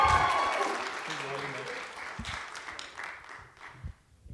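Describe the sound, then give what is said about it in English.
An audience breaks into steady, full-room applause to welcome a speaker, with a few voices calling out among the claps, the clapping thinning and fading away over about four seconds. “So give him a warm olive branch YC welcome tonight. Let's give a round of Bruce King.”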